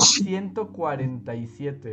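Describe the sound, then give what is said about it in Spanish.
A single short, hissy sneeze bursts out right at the start, fairly loud, and a man immediately starts talking over the rest. “Salud.”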